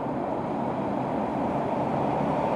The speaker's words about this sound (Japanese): 電車が滑り込んできて風でまた花が舞う